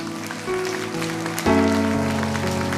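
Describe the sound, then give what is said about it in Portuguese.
An audience claps steadily in praise of the Lord, a dense crowd texture blended with sustained keyboard chords that shift every half second or so, at a fairly loud, even level. “Vamos aplaudir ao Senhor.”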